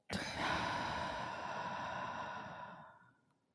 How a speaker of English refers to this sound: Taking three deep breaths in together to connect our energy, breathing in and breathing out.